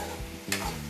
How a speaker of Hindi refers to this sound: अगर आपको सॉरी आ रही आवाज़ ना बेयर करना आप लोग क्योंकि मैं सब्जी भी बना रही हूँ